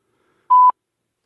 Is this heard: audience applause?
no